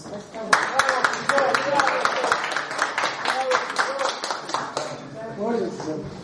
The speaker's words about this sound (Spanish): Un aplauso.